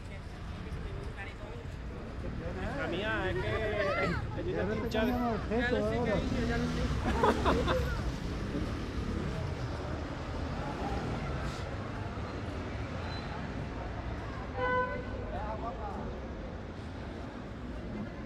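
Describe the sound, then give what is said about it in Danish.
Steady roar of traffic on a busy road, a constant rumble of passing vehicles, with people chatting and a hubbub of voices over it for much of the time. “Vi er ligesom en ret øh, trafikeret vej nu.”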